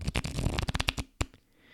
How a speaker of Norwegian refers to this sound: Det er en test som gjør at du rifler gjennom kortene. Og det er da slik at hvis du holder kortene f.eks. i venstre hånd, og så legger du tommelen helt øverst på kortstokken, og så rifler du eller drar gjennom kortene